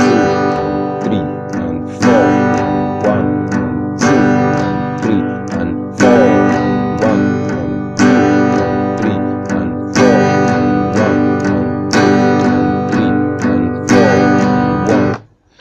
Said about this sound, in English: maybe you can increase the volume of the strumming or maybe strike a little harder on maybe two or four